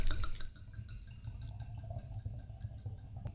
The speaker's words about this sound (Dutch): Het is echt uh, Stalin-wijn. Uit Georgië dus, waar Stalin zelf ook vandaan kwam. Het is uit 2019. Ik heb geen idee of het een goed jaar was. Nou ja, we gaan het proeven. Ik ga voor jullie inschenken. We gaan eens proeven hoe Stalin smaakt.